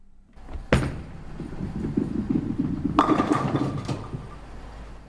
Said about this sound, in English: That's an easy one. That's a bowling ball being thrown down an alley at a bowling alley.